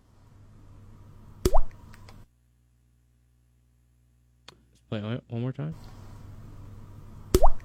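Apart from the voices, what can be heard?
water dripping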